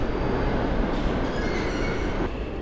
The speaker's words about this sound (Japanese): 現在地下鉄の駅のホームですがエクスプレス急行列車を待って北へ向かいます